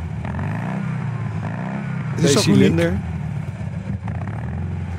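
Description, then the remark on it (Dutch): A low, throaty 50-year-old air-cooled car engine rumbles steadily, then revs up briefly in a rising, rattling burst before settling back to idle, with a person talking over it. “Het is 50 jaar oud, mijn auto.”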